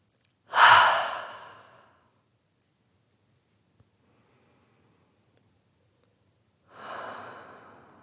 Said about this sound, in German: Ja, lasst uns tief durchatmen und ankommen in dieser neuen Folge.